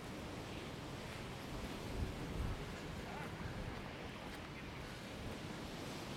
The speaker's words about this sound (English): Looking at the roaring sea, there's a man in it.